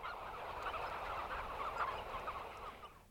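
A flock of hens clucking and murmuring together, a steady, dense chatter of overlapping calls that holds at an even, moderate loudness for a few seconds with no speech.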